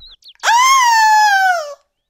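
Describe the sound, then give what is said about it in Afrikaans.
A single loud, high-pitched scream, alone, that rises sharply and holds for over a second while sliding slightly downward in pitch before cutting off abruptly. “Na 'n hele ruk, toe hy al moedeloos gesoek is, skrik hy om boeglam toe hy skielik 'n harde gil hoor.”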